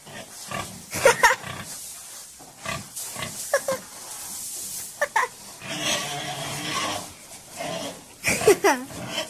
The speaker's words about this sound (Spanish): está en el corral de los cerdos, intentándolos atrapar. El chillido característico de estos animales llama la atención